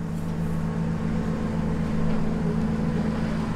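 An empty tractor with a big cage on the back drives past in a yard, its diesel engine rumbling steadily, a continuous low droning hum that holds at an even loudness throughout, with no one speaking.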